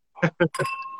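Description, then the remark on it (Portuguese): Two short bursts of voices, then a single bright glass clink whose clear ringing tone lingers and slowly fades, as glasses touch in a final toast. “Saúde. Um brinde final.”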